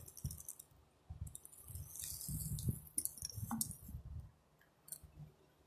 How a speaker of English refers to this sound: I had to take a sip.